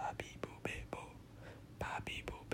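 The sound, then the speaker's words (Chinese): A voice whispers a quick run of syllables, soft breathy bursts with crisp consonant clicks and no voiced tone, split into two groups by a brief pause: Japanese syllables ba, bi, bu, be, bo said twice in breath voice, without throat vibration. “这个就是气音，因为气音会取消你的喉咙的震动，所以就不会有这件事情。”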